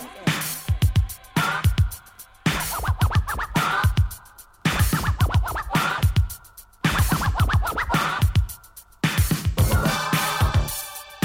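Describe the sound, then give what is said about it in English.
Loud, rhythmic turntable scratching fills the whole stretch, repeated bursts of rubbed, pitch-sliding record sounds cut with sharp breaks, over a thumping low beat, with no one talking. “that scratching is making me itch.”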